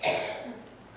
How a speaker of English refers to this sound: I'm going to blow my nose and I apologize.